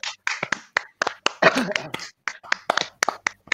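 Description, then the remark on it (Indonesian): A short burst of hand clapping: a run of sharp, crisp claps in an uneven rhythm for a few seconds, with some talking mixed in around them. “Oh ya itu itu kita beri tepuk dulu ya.”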